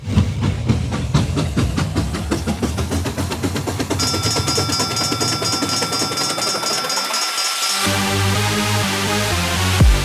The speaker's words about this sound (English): this train's about ready to move. Move.